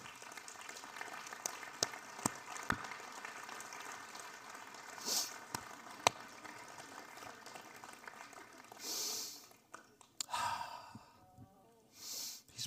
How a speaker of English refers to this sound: Let us give him a round of applause. That beautiful, beautiful child.